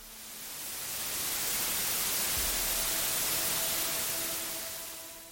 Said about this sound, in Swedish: När Sirenhead sover så ger den ifrån sig ett annat ljud, ett så kallat vitt brus.